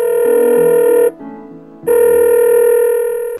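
A phone line rings out on an outgoing call to the Ministry of Social Development: two loud, steady electronic ringback tones, each about a second long, separated by a short silent pause, with no voices.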